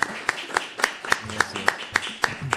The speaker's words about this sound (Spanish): Tenemos la suerte de tener con nosotros, pido un aplauso fuerte para el señor Juan Grabois, que vino a visitarnos.